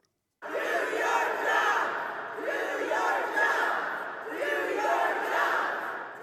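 A crowd of activists yelling and shouting loudly at lawmakers walking through the Tennessee Capitol on Thursday, screaming at them to do their jobs and pass gun reform laws; a continuous roar of many raised voices that swells in waves, with no single clear speaker.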